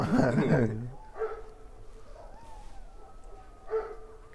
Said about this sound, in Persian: یه شغاله شغالا که کلا گروهی حرکت میکنن صدای شیون زن که میاد این صدای شیون زنه اینو میبینی؟ اینا شغاله ده 15 های با هم گروهی حمله میکنن